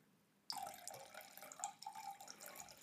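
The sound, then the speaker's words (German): Beer pours steadily into a beer glass, a continuous splashing, gurgling stream that starts abruptly after a brief quiet moment and runs for about two seconds, with no talking. “Leo pinkelt nicht in ein Glas. Nein, das ist tatsächlich hier.”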